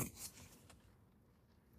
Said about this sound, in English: my notes, you know, you love this paper turning sound.